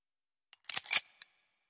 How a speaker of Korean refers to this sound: 이어서 그는 외투 주머니에서 큼직한 물건을 꺼냈다. 바삐 꼼지락거리더니 마침내 찰칵하는 날카로운 소리가 났다.